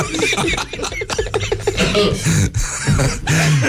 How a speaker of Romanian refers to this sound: Tușit puțin.